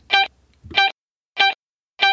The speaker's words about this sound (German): Verzerrungen leider auch in der Tonspur. Wir bitten das zu entschuldigen.